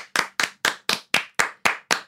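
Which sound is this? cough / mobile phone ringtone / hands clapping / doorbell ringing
hands clapping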